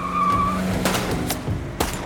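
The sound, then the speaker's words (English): A car's tires squeal in a short, loud skid over a running engine as it turns from an alley onto a street, followed by a few sharp, bright bursts of revolver shots as the vehicle keeps moving. “The big man raises his revolver and attempts to get a few shots off before the car turns from the alley onto the street.”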